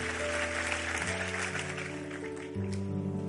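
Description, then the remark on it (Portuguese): A church audience applauds God steadily, a dense, continuous clatter of many hands, while sustained keyboard chords play underneath and shift pitch a couple of times. “Aplauda Ele.”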